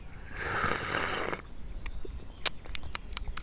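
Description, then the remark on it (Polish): A loud, airy classic slurp of tea, made while taking tea into the mouth, lasting about a second, followed by a quiet pause and then a series of sharp, wet lip smacks ticking irregularly, with no talking. “Dobra, to klasyczne jest takie.”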